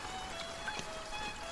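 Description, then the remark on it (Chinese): Light rain falls in a steady, soft patter, a faint hiss of drops with a few slightly sharper ticks scattered through it. No voices are heard. “小雨淅淅沥沥，草垛下只剩下一个没孵出小鸡的蛋。”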